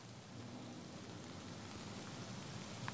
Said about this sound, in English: Oh, this is the rain.